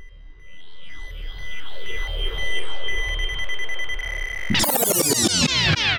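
A time machine travel effect: warbling electronic tones sweep over a steady pulsing throb, building until a loud burst of rising, shimmering harmonics takes over near the end. No voices.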